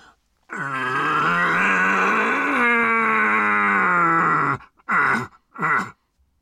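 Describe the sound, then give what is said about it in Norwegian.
A man's voice imitates a red deer stag's roar as a lure call for deer: one long, loud, guttural bellow lasting about four seconds, followed by two short grunting calls. “Jeg kan godt prøve, men jeg må understreke at det, det, er mye lettere å lokke på en hjort når du har hørt hjorten på forhånd, for da klarer du å legge deg i det riktige leiet.”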